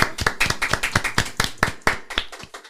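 Applause welcoming a guest doctor, a pulmonologist, at the opening of a show's third season: a run of sharp, distinct claps at a quick, fairly steady pace, sounding like only a few pairs of hands, with no voices over it.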